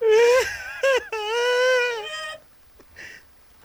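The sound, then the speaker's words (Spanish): A man's voice imitates loud, wailing sobs: two short bursts, then a long drawn-out cry, followed by a faint quieter whimper after a pause. “Había una vez un señor sentado eh, que trabajaba en el zoológico y estaba sentado llorando profundamente.”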